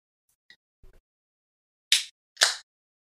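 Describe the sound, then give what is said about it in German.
A bottle of Raspberry Tart, a sour beer with raspberry juice, being opened: a few faint clicks and a soft clunk, then two short, loud bursts of hissing fizz as the gas escapes. No one speaks. “Machen wir es mal auf.”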